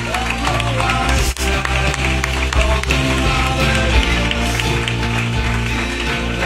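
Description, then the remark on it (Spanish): A crowd applauds loudly and steadily for the team from Documfy, who make their videos, a dense wash of clapping that runs unbroken for several seconds, with a steady tonal backing underneath and no clear voices. “Fuerte aplauso a los compañeros de Documfy.”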